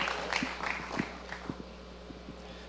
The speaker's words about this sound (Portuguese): Muito obrigado, gente. Vamos aplaudir agora todo mundo que participou aqui, gente. Aê, aí sim, hein?